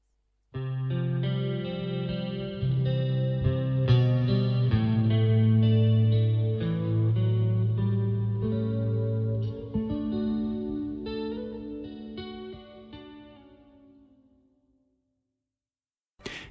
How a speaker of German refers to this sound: Gleich geht es weiter hier in der Sendung Credo bei Radio Horeb nach der Musikpause.